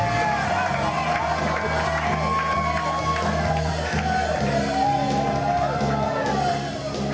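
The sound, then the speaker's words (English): A large crowd shouts "Always, everywhere" together in unison, many voices blending into a loud, sustained chant that carries steadily throughout, with a few individual yells rising above the mass. “Can you shout it?”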